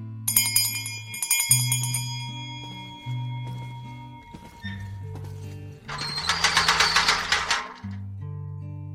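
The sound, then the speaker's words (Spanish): A hand bell, rung by a ticket seller in a metro station to announce an arriving draisine, rings with bright, metallic tones, shaking rapidly and loudly for a couple of seconds near the end, over low sustained droning tones that continue throughout. “Por allí viene su transporte, anunció el expendedor, e hizo sonar una campana.”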